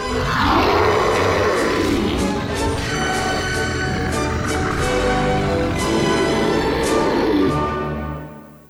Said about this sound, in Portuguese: Ah, e vocês escutam, tipo, esse barulho de. Vocês escutam um rugido absurdo.